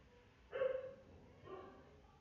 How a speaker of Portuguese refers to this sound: Cachorro latindo lá fora, foi mal, foi mal. Ah, ai meu Deus, vamos esperar os cachorros latirem.